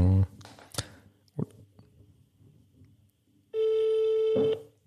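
A phone's ringback tone sounds once, a loud, steady electronic buzz lasting about a second, after a quiet stretch broken by a few brief clicks and a short vocal sound at the start.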